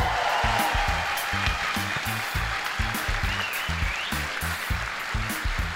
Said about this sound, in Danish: Vi I ikke godt give et kæmpe stort bifald til Lars Peter?